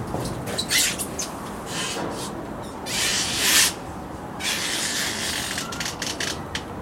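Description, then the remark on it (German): Rubber squeaking and rubbing from a rubber handrail on two intertwining spiral staircases, with a series of irregular scratchy, high-pitched bursts, the loudest in the middle, then a longer squeaky stretch. No one speaks. “bei diesem Geräusch dürfte klar werden, dass die Natur es ursprünglich nicht vorgesehen hat, dass sie Gummi hervorbringt.”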